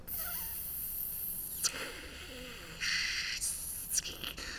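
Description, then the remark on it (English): Rich acoustic sound turned into harsh, hissy one-bit digital noise and delayed, played through a speaker cluster in the middle of the room: it hums steadily, then bright buzzy bursts switch abruptly on and off in blocks over a few seconds, with faint warbling tones underneath, fairly loud. “So I'm, I'm literally taking you know rich acoustic sound and I'm turning it into one bit sound and delaying it and shooting it up into the cluster um, in the middle of the room.”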